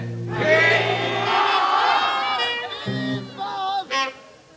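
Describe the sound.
A concert crowd, outdoors at half past nine in the evening, shouts "fy" together on a count of three in one loud, drawn-out collective yell lasting a couple of seconds, followed by a few scattered shorter voices as it dies away.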